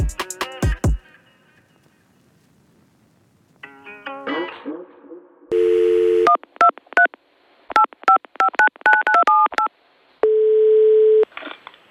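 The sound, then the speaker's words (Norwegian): A phone line sequence as a call is placed: a few sharp clicks, then a series of quick two-tone keypad beeps in bursts, broken by steady dial-tone stretches, loud, with no talking. “Skal vi sette i gang, eller skal vi ringe han? Vi ringer.”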